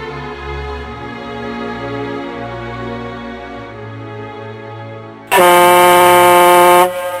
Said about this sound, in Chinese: 不久，上班的汽笛又响了。